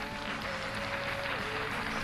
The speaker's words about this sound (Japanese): はい、えー、今日も盛大な拍手をありがとうございます